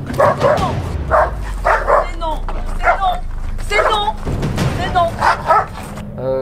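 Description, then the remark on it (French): A dog barks repeatedly in loud, irregular bursts, some sharp and some drawn out into yelping whines, over a steady low rumble. “Il agit à moitié comme un malinois, tu sais, le, classique, euh, bon, je suis pas content, je crie, je claque des dents.”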